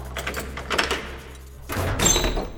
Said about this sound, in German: steckt der Herr Tack einen riesigen Schlüssel ins Schloss und schiebt die schwere Eisentür auf